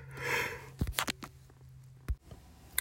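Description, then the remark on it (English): A soft, muffled breathy exhale of a person fighting off a yawn, quiet, followed by a few small mouth clicks and a short sniff-like breath before silence. “Whoa, I had to fight off a yawn there, folks.”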